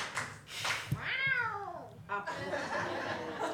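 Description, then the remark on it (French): A person imitates a cat with a drawn-out, wavering meow, followed by a shorter second meow-like cry, fairly loud, with breathy laughter around it. “C'est moi le chat. Je suis bonne pour la faire le chat.”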